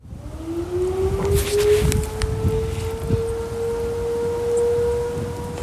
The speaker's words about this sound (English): That's a tsunami warning. That's a siren. All right, I'm going to try to get to high ground.